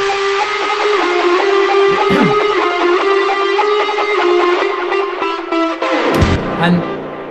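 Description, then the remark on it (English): Dense electronic music chopped into rapid, glitchy stutters by the iZotope Stutter Edit plugin, with a steady droning tone underneath and a sudden low-end burst near the end, loud. “weird little kind of glitchy bit is a plugin called that's the wrong thing. It's a plugin called iZotope Stutter Edit, which just mangles sound.”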